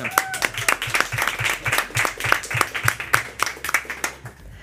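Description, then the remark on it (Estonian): An audience applauds steadily for several seconds during a Põltsamaa Raadio broadcast, a dense wash of many hands clapping at moderate loudness, with a faint rhythmic low thump underneath, tapering off at the very end. “aplaus”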